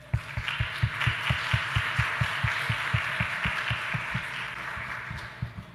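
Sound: applause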